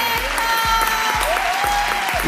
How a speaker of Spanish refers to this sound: Gracias, Un aplauso para